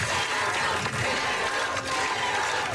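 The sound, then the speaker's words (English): A crowd cheers outside a Uvalde school board meeting after superintendent Hal Harrell announced plans to retire, a dense, steady roar of many voices that holds loud and even throughout, with no single speaker standing out. “Cheering outside the meeting enraged victims' families inside.”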